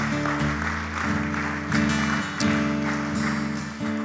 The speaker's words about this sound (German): Lasst uns noch mal einen Applaus geben bitte für die Leute, die sich gemeldet haben.